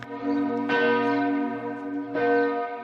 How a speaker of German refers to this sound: Jetzt hat sie ihren alten schönen Klang wieder. Sie gehört zur St. Nikolauskirche und es ist eben unsere große Glocke. Sie wiegt über 3000 Kilo, Es ist nicht die schwerste Glocke Südtirols, aber eine mit dem schönsten Klang.